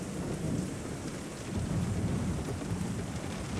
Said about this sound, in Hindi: वो निकलने वाली ही थी कि तेज बिजली की कड़क के साथ अचानक से मूसलाधार बारिश होने लगी